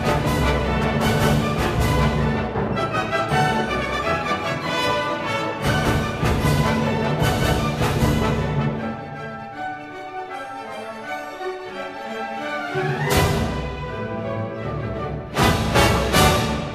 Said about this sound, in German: Wieder junge Musiker, das Landesjugendorchester Sachsen, wieder unter Milko Kersten mit einem ungarischen Tanz von Johannes Brahms